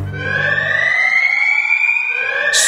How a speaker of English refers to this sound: Screams, sirens, and alarms of all kinds immediately arose together.